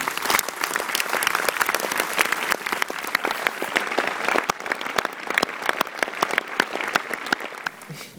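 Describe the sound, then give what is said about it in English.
Steady applause from an audience at a film screening, for the film's co-producer: many overlapping claps forming a dense, even patter that holds at a fairly constant level for several seconds, tapering slightly at the end. “Please, uh, a round of applause for my co producer and mm-hmm.”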